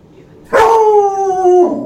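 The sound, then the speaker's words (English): A dog lets out a sharp yelp that stretches into a loud, sustained howling whine, its pitch wavering and dipping near the end, with no one talking. “What are you yapping at?”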